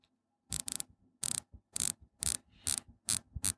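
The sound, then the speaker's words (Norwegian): A dive watch bezel being turned in front of a microphone to demonstrate its sound, giving a steady series of sharp ratcheting clicks, some coming in quick pairs, with no voices. “Eh, beselfil, altså hvordan beselen klikker og hvordan den føles. Jeg kan jo demonstrere lyden for mikrofonen her,”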